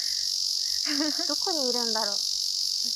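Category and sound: insect, cicadas chirping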